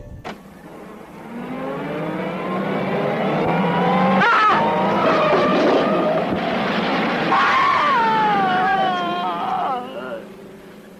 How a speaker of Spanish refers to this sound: Tras ser atropellado, el pintor pierde la mano, aquella que le permitía expresarse.